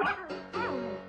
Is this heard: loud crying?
no